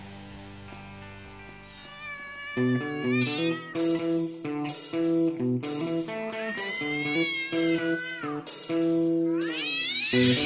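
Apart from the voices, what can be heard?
cat meowing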